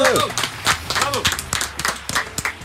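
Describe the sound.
A few people clap in loose, uneven bursts while voices talk and call out excitedly over the top, the handclaps sharp but scattered rather than a full crowd.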